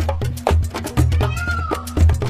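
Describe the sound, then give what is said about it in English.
A high, wailing yelp like a peacock's call, voiced by a child in imitation, rising and falling over a steady thumping beat that pulses about twice a second. “yelping like a peacock”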